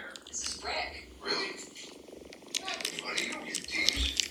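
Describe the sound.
A person imitates a cat suckling, making quiet wet sucking and smacking sounds in a quick, uneven rhythm with a breathy, purr-like texture underneath.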